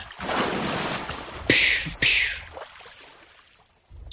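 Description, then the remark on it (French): A whale surfaces beside a fishing boat with two loud, hissing bursts of spray and splashing about half a second apart, over steady rushing water that fades away afterward. “Il y avait une baleine à côté du bâton Wow.”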